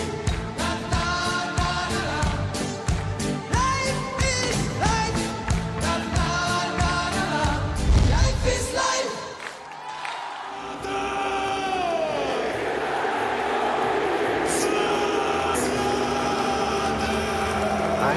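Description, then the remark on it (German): A rhythmic music passage gives way to a dense, steady roar of a large stadium crowd applauding and cheering as Zlatan Ibrahimović is bid farewell at AC Milan, holding at an even loudness for the final several seconds. “Slatan Ibrahimovic wird verabschiedet beim AC Milan, aber es klatscht nicht nur er und es wird nicht nur für ihn geklatscht, sondern auch für Benzema, der bei Real Madrid seinen letzten Einsatz hatte.”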